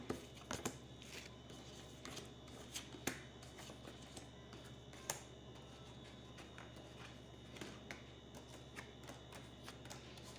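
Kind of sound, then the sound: household object, shuffling playing cards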